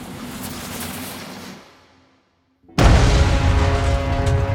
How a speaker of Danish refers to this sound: Der lyder et brag, og så er togskinnerne fuldstændigt smadret.